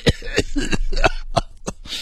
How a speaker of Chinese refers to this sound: 你跟我说了两句话，三句话都在咳嗽。